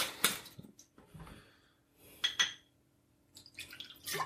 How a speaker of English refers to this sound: i'm going to pour us a shot real quick one more for um, sure.